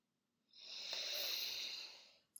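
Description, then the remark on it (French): A single long, steady inhale through the nose, a breathy hiss that swells smoothly for nearly two seconds and then stops, with no talking. “Mais pour cela, vous allez inspirer par le nez”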